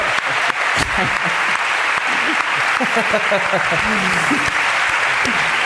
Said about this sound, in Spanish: Aplausos para la ruina